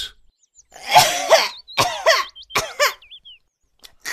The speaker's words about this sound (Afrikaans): maar toe begin sy hoes.